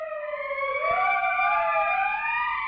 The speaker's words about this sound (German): Erst dachten wir, die Polizeisirenen seien Teil des Stücks. Dabei kamen sie von draußen.